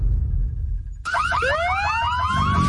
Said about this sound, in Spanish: Sabemos que las bocinas y los ruidos son molestosos.